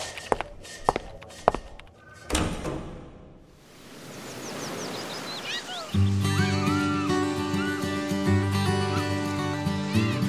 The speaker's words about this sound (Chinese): Hello，只要继续往前走，推开门就是佐编茶水间。